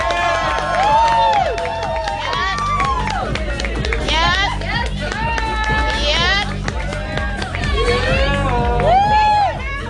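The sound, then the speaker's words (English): An audience at a high-fashion show cheers and whoops continuously for the full ten seconds for a person in a white suit, many voices rising and falling in overlapping shouts over a dense, loud wash of noise. “Make some noise.”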